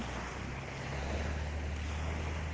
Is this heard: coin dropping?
no